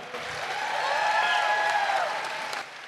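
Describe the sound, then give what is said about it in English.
Sustained audience applause for a speaker who has just finished, a dense wash of many hands clapping at steady volume, with faint cheers or whistles rising briefly through the middle before it tapers off. “Let's hear it for Soliana.”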